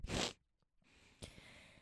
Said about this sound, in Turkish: Ee, ay bir burnumu çekeceğim.